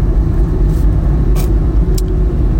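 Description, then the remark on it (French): Steady low engine rumble and road noise from inside a moving car being driven to a physiotherapist appointment, continuous and fairly loud, with a few brief high-pitched hisses or squeaks near the middle and end; no one speaks. “Le problème en voiture, là, c'est qu'elle m'a fait un queue de une queue de poisson”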